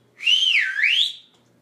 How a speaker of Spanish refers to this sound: Una de las árbitro una delicada mariposa monarca, al ver que nadie hacía nada para detener aquello, respiró muy hondo y chifló con todas sus fuerzas.